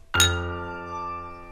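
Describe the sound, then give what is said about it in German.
Drinking glasses clink together once as a group of comrades toast, followed by a bright, bell-like ring that lingers and fades slowly over more than a second, with no voices. “alle ließen noch einmal die Gläser erklingen, sich der Innigkeit und Gemütlichkeit, die ihren schönen Bund immer fester und fester verknüpfte, recht aus dem tiefsten Herzen heraus erfreuend.”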